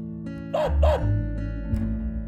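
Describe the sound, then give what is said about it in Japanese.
A puppy barks twice in quick succession, two short, high yaps close together, then falls quiet over a steady low background hum. “あれあそこに子犬さんがいるよ”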